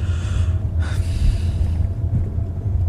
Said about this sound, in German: Ja, schnief nicht, sag was.